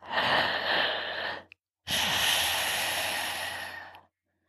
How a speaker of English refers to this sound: This is where the name of the breath comes in. It sounds like an ocean or Darth Vader.